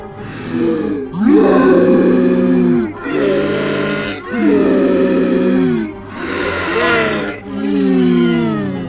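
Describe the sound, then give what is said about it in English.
A person's voice imitates a monstrous creature's massive roar as it falls to the ground: five loud, drawn-out guttural bellows in quick succession, strained, with brief breaks between them. “it's blasting out the back of this thing's head and it's just falling to the ground and you hear this massive roar”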